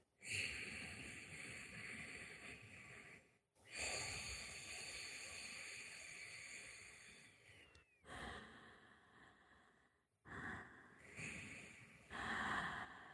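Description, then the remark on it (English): Slow, raspy oceanic yogic breaths drawn through a slight constriction at the back of the throat in ocean-like waves, several long inhales and exhales with brief pauses between, fairly loud, with no talking. “In this oceanic breath, there's a slight constriction in the back of your throat.”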